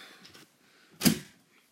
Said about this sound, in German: macht die Tür aber trotzdem bitte zu.